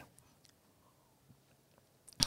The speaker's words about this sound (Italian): Scusate un attimo di pausa, sorseggiamo un goccio sì. del tè, non abbiamo resistito. Avete sentito il Gluck? esatto, tra l'altro oggi, vabbè, piccolo spoiler, eh, sarà un tè freddo, cioè un tè preparato a freddo